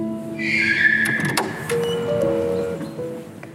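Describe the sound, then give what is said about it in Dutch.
A car driving to Den Bosch moves along with a steady low engine and road rumble, a few sharp clicks and faint electronic tones sounding inside the cabin; no one speaks. “Voor de laatste keer stap ik in de auto.”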